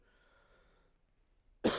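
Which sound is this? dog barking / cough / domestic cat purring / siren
cough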